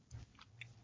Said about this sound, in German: Und jetzt esse ich eine Tafel, eine kleine Minitafel Knusperkeks aus meinem Adventskalender.